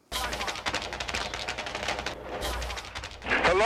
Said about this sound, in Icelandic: Hvort það var slísaskot frá einhverjum af 75 ATF-mönunum sem höfðu umkringt aðalbygginguna á Mount Carmel eða einhver Davidsinni fyrir innan sem vísvitandi hleyfti af vopni sínu. Allavega var skotið og fleiri skot fylgdum.